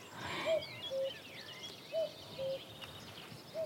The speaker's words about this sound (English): we've got a cuckoo calling, and this really is Dartmoor at its best